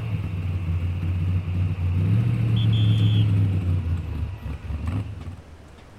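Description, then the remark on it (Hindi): A car engine hums steadily, its low rumble rising briefly as the vehicle accelerates, then easing back down while it keeps driving. No voices are heard. “driver है break मार लिया अच्छा अच्छा ठीक है चलो चलो देखते हैं कि उस्ताद जी का क्या कहना है आओ आओ आओ गाड़ी में बैठ जाओ”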